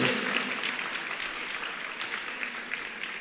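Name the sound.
audience applauding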